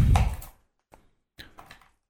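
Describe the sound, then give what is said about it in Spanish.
A coin is tossed and handled: a soft thump of movement, then a single light click and a short cluster of small metallic taps and rattles, with no talking. “Vamos a hacer una cosa, vamos a tirar una moneda.”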